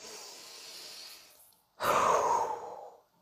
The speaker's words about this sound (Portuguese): Traz uma respiração consciente para os seus próximos cinco dias. Respira fundo, enche o peito.